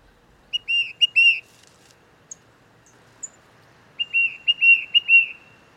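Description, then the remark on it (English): A tufted titmouse, a small gray songbird, whistles two bursts of clear, repeated two-part notes, separated by a pause with a few faint chips, against a quiet background. “It turns out that the tufted titmouse, a small gray songbird, is often the one leading the flock.”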